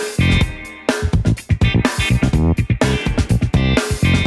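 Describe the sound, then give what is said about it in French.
A loud, dense band mix plays continuously with steady rhythmic pulses and sustained tones, with some reverb added and the guitar turned down dramatically so it sits quietly beneath the other instruments. “Et là j'ai baissé euh, la guitare mais assez, assez dramatiquement.”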